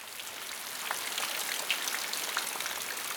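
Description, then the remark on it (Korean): Steady rain patters on a yellow plastic raincoat worn by someone outdoors, a dense hiss of drops with occasional sharper taps as they slide off the slick surface. No voices. “비옷으로 미끄러지는 소리가 나쁘지 않다.”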